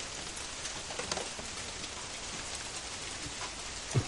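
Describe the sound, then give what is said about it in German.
Heavy rain falls steadily, a dense, even hiss of drops spread across the whole clip, with one soft low thump near the end and no voices. “Ja, es regnet sich mal wieder richtig ein.”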